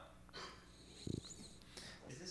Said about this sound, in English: even snores through when I talk.